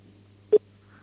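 A single short telephone tone beeps once, clear and fairly loud, over a faint steady line hum while a radio host on a live Ekho Moskvy broadcast in Makhachkala calls the first expert and waits for an answer.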